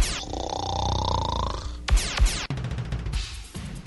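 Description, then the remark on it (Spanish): A loud, drawn-out snore rumbles for over a second, then breaks into a couple of sharp snorting bursts and rougher noisy breaths. “Sus noches son solo para roncar.”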